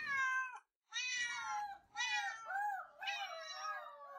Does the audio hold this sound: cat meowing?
yes